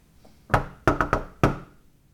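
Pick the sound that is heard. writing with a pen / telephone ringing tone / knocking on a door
knocking on a door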